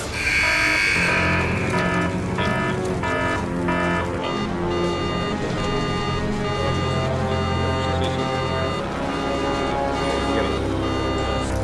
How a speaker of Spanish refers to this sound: 4, 3, 2, 1. 1. Secuencia de encendido a cero. Motores encendidos. Y despegamos.